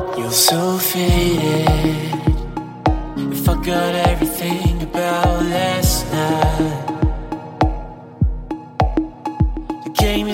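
An electronic music track plays on its own, with a steady punchy kick drum, bright synth chords and crisp hi-hats driving a regular beat, loud and close with no voices.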